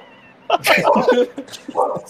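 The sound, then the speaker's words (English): A dog named Nika whines and lets out several short, excited barks in a quick burst, fairly loud, following a brief quiet moment. “if it's not trains, it's dogs.”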